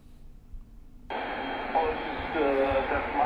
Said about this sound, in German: Ja, man muss auch dazu sagen, SSB braucht man vor allen Dingen fürs Amateurfunk oder für die Amateurfunkbänder, hört man jetzt hier auch gerade. Ja, da kann man jetzt schlecht was hören.